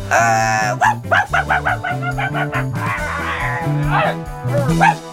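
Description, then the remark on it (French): A dog barks in a quick series of short, sharp yaps, then a few more scattered barks, all over steady background music with a low, bouncy bass line; the dog Chachien barking to distract attention in a children's story. “Direction la cuisine, allez viens Chachien se mit à aboyer, et à miauler pour détourner l'attention de Thiago et Lulu.”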